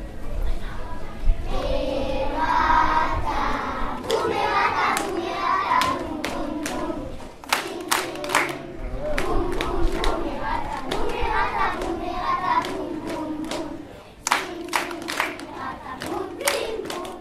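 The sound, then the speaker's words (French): A crowd of people leaving a hall: a steady, busy murmur of many voices, broken by frequent sharp claps, knocks and thuds scattered throughout. “il y a plein de monde qui est en train, qui est en train de sortir du hall”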